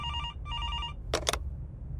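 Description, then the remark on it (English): A doctor's telephone rings in two quick electronic trills, followed by a brief clatter like the handset being lifted as the doctor picks it up, all over a steady low rumble of room noise. “Just when Inspector Singh finished his sentence, the doctor's phone rang.”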